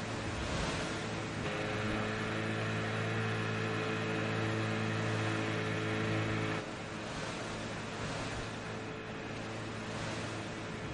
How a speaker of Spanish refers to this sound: Venga, vamos. La barca navega hacia mar abierto.